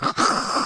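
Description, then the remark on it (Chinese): A person vocally imitates hawking up phlegm from the throat to spit, as done when coughing with a cold: one harsh, gravelly throat rasp lasting under a second, with a brief catch near the start, fairly loud and with no talking. “那咳嗽的时候，就常常觉得喉咙里面有痰，就会常常想要吐痰，吐痰就这样。”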